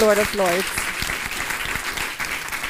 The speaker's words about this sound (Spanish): Dale ese fuerte aplauso al Rey de Reyes y Señor de Señores.